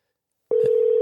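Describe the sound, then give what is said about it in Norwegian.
After a moment of silence, a steady electronic ringback tone starts on an outgoing phone call and continues unbroken, with a brief click near its start and no voices. “Hun tar ikke telefonen.”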